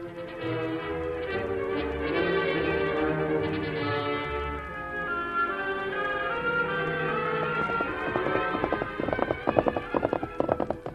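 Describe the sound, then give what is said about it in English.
Orchestral music plays throughout, and in the final few seconds a rapid, rhythmic clatter of galloping hoofbeats comes in beneath it, growing more prominent: the horse of the Lone Ranger, disguised as a half-breed scout, riding toward the rim of a valley. “An hour later, as he rode toward the rim of the valley, the Lone Ranger, disguised as a half breed scout, was suddenly halted by sounds of distress.”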